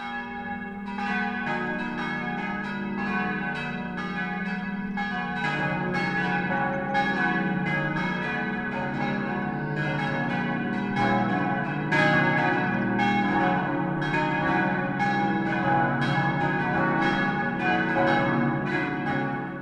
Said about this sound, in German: Es ist 12 Uhr. Das Mittagsläuten kommt heute von der katholischen Pfarrkirche St. Peter und Paul in Oberammergau.